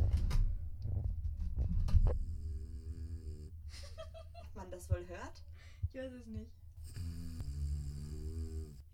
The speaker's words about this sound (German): Vibrationsalarm hat sie an. Warte mal kurz, ich versuche mal das ein bisschen aufzunehmen. ASMR.